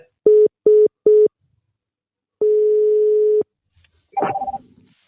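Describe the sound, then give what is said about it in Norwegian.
Telephone tones: three quick, evenly spaced electronic beeps, then one long steady ringing tone, followed after a pause by a short rattling clatter. No one speaks. “Ja, hei, hei. Jeg ringer fra SSB.”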